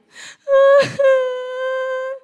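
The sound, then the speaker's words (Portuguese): A voice imitates a child's crying wail: a short breathy sob, a sharp gasp, then one long, loud, steady whining tone held for over a second before cutting off. “Começou a chorar.”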